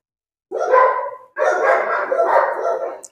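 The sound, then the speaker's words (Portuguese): Dogs barking loudly, a short burst followed by a longer stretch of rapid, overlapping barks with a few higher yips, with no one talking. “No meu caso, eu pego uma bermuda, os cachorros seguem latindo.”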